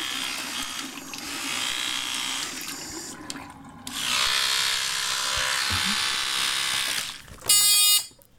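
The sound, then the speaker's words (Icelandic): A Ramax electric toothbrush buzzes steadily for several seconds, its motor tone shifting as it presses against teeth, ending with a short, louder high-pitched burst. Fairly loud, no talking. “Tannbusti? Já, akkurat. Þetta var, var það Ramax tannbustin.”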